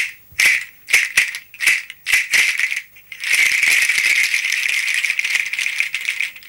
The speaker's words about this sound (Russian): Я бренчал для вас вот этой погремушкой, сделанной из бобов энтада. Это самый большой стручок на свете